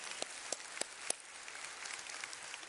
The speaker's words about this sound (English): We are glad that uh, our volunteers are down at Park Street. Watch y'all clap for them for being down there so they can hear y'all?